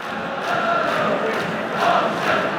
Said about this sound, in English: It deflected out for a referee's given a corner but there's a lot of booing coming for that end. So it oh, seems like it hit a hand.